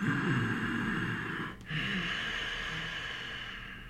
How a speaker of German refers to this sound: Das harmonisiert fünftes Chakra und auch der sogenannte Ujjayi-Atem, also der sanft hörbare Kehllaut, harmonisiert das fünfte Chakra.